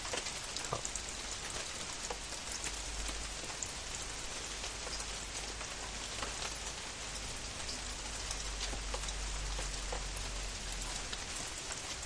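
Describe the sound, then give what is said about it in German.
Steady rain falls throughout, a dense, even hiss of drops pattering on surfaces with occasional sharper splashes; no voices are heard. “Aber ich meine, die liegt jetzt hier noch schon eine Stunde im Regen.”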